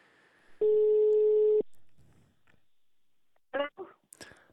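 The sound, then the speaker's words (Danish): A single steady phone ringing tone sounds for about a second on an outgoing call, then silence, followed by a few brief clicks and faint noises as if the line is picked up. “Nu ringer vi lige her”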